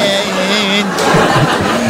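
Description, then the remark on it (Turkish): A car engine hums steadily, then revs with a wavering, rising pitch as the vehicle pulls away, loud and continuous for the whole two seconds. “Ee, nesin anam nesin bir tur ver de binem”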